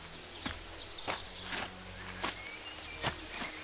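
Six footsteps of someone walking into a graveyard outside a town, at a steady walking pace, each a soft, crisp scuff, over a low background hum with faint high insect-like chirps.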